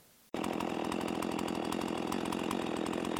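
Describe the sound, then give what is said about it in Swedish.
A motorized seed sower's small engine roars in abruptly after a brief quiet moment, then runs loud and steady with a constant buzzing drone, with no voices, while surface-sowing seed over a forest area being reforested. “gick och ytsådde eh, ett av områdena som vi beskogade”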